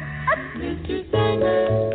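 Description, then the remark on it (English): A snippet of a 1953 pop song with a sustained melody over a band, punctuated near the start by a short, bright dog bark mixed into the music. “The last time we had two years in a row of falling food prices was a long time ago when these songs were hits.”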